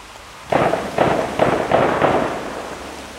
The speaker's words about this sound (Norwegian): nå skyter de på Utøya.